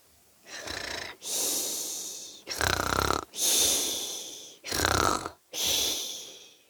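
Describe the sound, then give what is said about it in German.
A voice imitates snoring: three rattling, throaty inhales, each followed by a long airy whistling exhale, in a slow steady rhythm with no talking. “die, die Lehrerin schnarcht.”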